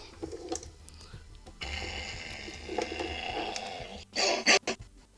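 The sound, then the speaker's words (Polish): A wireless doorbell plays the first signal programmed into it, a recorded growling dog sound: a sustained, buzzy rumbling growl that ends in a couple of short, louder snarling bursts. “To był pierwszy nasz sygnał, Aha. czyli ten warczący piesek.”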